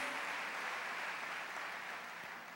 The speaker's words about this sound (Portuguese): Quem acredita na palavra de Deus, aplauda ele bem forte.